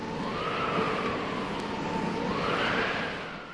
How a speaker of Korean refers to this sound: 갑자기 바람이 불자 나그네의 옷자락이 펄럭였어요